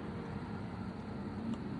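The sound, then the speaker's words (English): A car in the background gives a steady, low engine rumble that fills the short recording at an even level, with no clear rise or fade and no one speaking. “Little sound clip we have here with the uh, the car in the background.”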